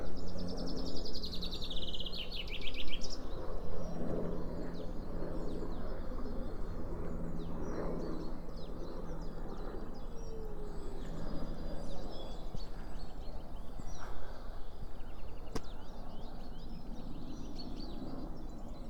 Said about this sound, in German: Die Vögel zwitschern, der Himmel ist tiefblau.